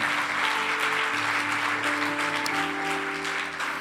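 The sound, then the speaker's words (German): Steady applause after a prayer, from those who have made the decision to follow Jesus, fills the whole stretch, a dense wash of clapping at even loudness, with sustained organ or keyboard chords holding underneath and no voices speaking. “Komm mal, Applaus, wenn du diese Entscheidung getroffen hast.”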